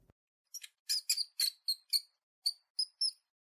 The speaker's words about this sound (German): Nein, das war nicht das Geräusch, was sie eben vernommen hatte. Das hier klang viel eher nach einem Fieben oder Quieken. Es schien von der Treppe vor ihr zu kommen und wurde lauter.